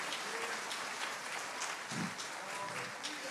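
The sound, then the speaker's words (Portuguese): A church audience applauds Jesus steadily, a dense, even wash of many hands clapping at once that holds at a constant level throughout, with no one speaking over it. “Aplauda Ele.”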